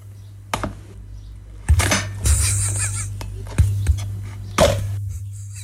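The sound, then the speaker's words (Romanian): A fork is stuck into a well-fried cream puff (crembuș), which cracks open, making a few sharp, crisp cracks and clinks at irregular moments over a steady low hum, with no one talking. “Iată acest filmuleț în care se taie se înfige întâi uh, furculița într-un crembuș care crapă, știți acel sunet uh, specific crembuștului bine fier, dar exact atât cât trebuie ca să nu pleznească.”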